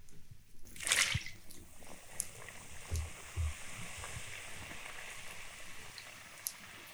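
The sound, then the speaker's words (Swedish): Egg-yolk pastries, put in about five at a time, deep-frying in hot fat: a steady crackle and fizz of bubbling oil, with a brief louder hiss near the start and a couple of soft low bumps. “Ska vi hålla mikrofonen här? Höra om det bubblar.”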